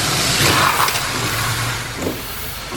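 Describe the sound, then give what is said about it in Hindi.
A car engine rumbles with a steady low hum and broad road noise in the rain, easing off slightly toward the end as the car comes up from behind and stops. No one speaks. “तब लगा जैसे भगवान ने मेरी सुन ली क्योंकि दस कदम ही चला था कि देखा कि पीछे से एक गाड़ी चली आई मैंने लिफ्ट मांगी और गाड़ी रुक दी”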